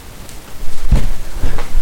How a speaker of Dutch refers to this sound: Zo, er was even een storing waardoor we midden in het gesprek onderbroken werden.